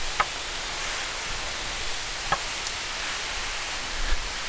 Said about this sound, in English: The fountains just kicked in. Do you hear that?